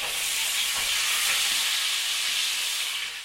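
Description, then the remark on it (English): Flounder sizzles steadily in butter in a frying pan, a bright crackling hiss that holds at an even level for a few seconds before easing slightly at the end, with no voices. “Oh, he showed me the frying pan and the block of butter and the plate of fish and left me to it.”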